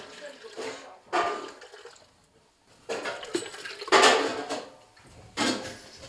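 Three liters of water splash and pour into a container in several short bursts, with faint clinking of dishes or utensils between pours and no one speaking.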